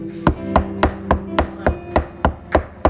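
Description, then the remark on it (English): A rapid, steady series of about ten sharp knocks on a door, evenly spaced and fairly loud, with a low sustained hum or tone running underneath and no voices. “I'm standing at the door and I'm knocking.”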